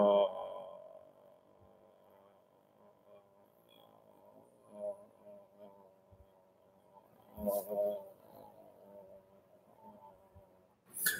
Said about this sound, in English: And listen to this, okay? If I make a lower humming sound right here before it cuts off